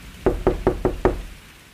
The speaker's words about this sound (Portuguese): Um dia, à tardezinha, chovia. Estava acontecendo uma tempestade terrível. Até que subitamente ouviu-se batidas nos portões do castelo.